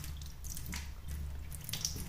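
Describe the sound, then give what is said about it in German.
Water pours out of a full tank in a steady, splashy stream with scattered drips and gurgles over a low rumbling background, fairly quiet and continuous for about two seconds. “Und jetzt kippe ich den Tank aus.”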